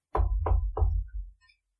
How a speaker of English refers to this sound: I'd like to knock on Jarell's door.